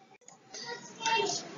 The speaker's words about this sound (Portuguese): meus filhos deram berra aqui atrás.